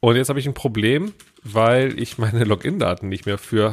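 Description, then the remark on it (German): A man talks steadily and laughs briefly while quick, light taps on a computer keyboard click away in the background, partly buried under his voice and clearest in the short pause. “ihr hört es im Hintergrund tippen”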